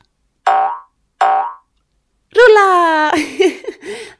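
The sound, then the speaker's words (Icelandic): Two quick cartoon boings of someone bouncing on a jumping pillow spring out one after another, each twangy and fading fast, followed by a loud, drawn-out vocal exclamation that wobbles in pitch. “þetta var nú gaman ég er góður í kollnísarúli keppnum en ég hef aldrei skoppað svona mikið áður Þvíli keppni að lenda á ærsla belg”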